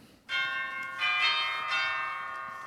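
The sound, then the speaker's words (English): A cottage doorbell rings out in three bright, resonant chimes about a second apart, each note lingering and overlapping the next, clear with no voices. “I walked up to the cottage, rang the bell.”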